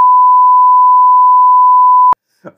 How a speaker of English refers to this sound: Uh, since you said it again, I'm gonna beep that. Yeah, I'm, I'm, gonna make sure I beep that when we go back.